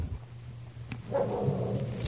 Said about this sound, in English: That's what I say. That dog says, yes, be careful.